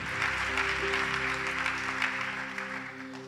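An audience claps together in a dense, steady burst of applause lasting a few seconds, with sustained keyboard-like tones humming underneath throughout.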